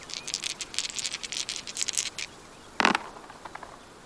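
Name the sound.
dice being rolled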